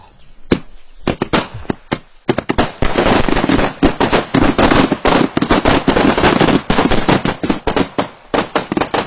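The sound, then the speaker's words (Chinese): Ceremonial firecrackers go off at a family's ancestral graves in China during ancestor worship on a grandson's wedding day: a few scattered sharp pops give way to a long, dense, rapid crackling barrage, then thin out into separate loud bangs at the end. No one speaks. “礼炮声后，董老汉和儿子董永站起身，又郑重其事鞠了三个躬，告慰了先人。”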